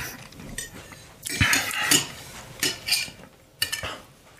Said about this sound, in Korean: 접시에 고인 핏물까지 포크로 긁어먹고 정원의 목련나무를 바라보았다.